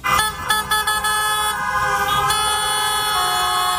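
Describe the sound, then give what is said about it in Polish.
Several car horns honk in a loud, overlapping chorus, sustained tones layered over the echoing rumble of traffic as the first cars drive through the new tunnel to Świnoujście, which links the islands of Wolin and Uznam. No one speaks. “Pierwsze samochody przejechały tunelem do Świnoujścia.”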